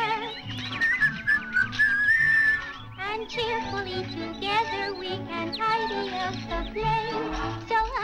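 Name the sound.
whistled tune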